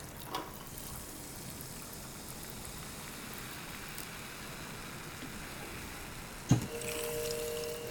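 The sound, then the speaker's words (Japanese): Soda water poured into a highball glass of Talisker whisky gives a steady, dense fizzing hiss for several seconds. A sharp clink comes near the end, followed by a faint sustained tone under the bubbling. “じゃあ炭酸を入れて。”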